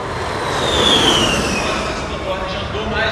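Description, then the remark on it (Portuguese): A Formula E electric race car driven by Félix da Costa sweeps past at the São Paulo E-Prix at the Sambódromo, with a high, falling electric whine, loudest for a moment, then fading into a steady wash of crowd and track noise. “Esse é o som do Fórmula E.”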